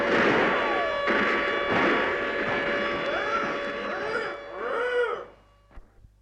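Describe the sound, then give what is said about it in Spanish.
A dense, roaring barrage of artillery fire from troops destroying a village rumbles on for about five seconds, with wavering lowing animal cries rising through it near the end, then it cuts off, leaving a couple of faint knocks. “Muchas gracias a las tropas por su eficaz actuación en beneficio de nuestro público. La aldea ha quedado completamente destruida.”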